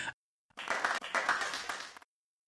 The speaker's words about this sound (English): And it continues to amaze me how many people I can seem to fit into the Lions of Liberty Studios for the for this show. The applause just seems to get louder every single week.